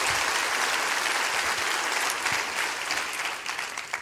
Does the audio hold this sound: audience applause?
yes